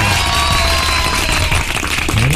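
A steady burst of applause on the 96 radio station's Jornal 96 programme, dense, loud clapping from many hands that holds evenly for a couple of seconds, with faint tonal whistling running underneath.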